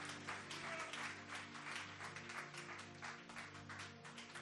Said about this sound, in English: Clap your hands and give him praise again.